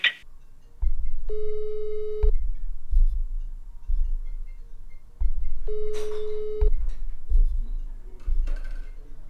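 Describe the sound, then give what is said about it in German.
A telephone busy signal: two steady, buzzy beeps about a second long, spaced several seconds apart, over a continuous low rhythmic thumping. No one speaks. “Die Umsetzung der Ideen hörte sich dann aber immer so an. Die gewählte Rufnummer ist besetzt.”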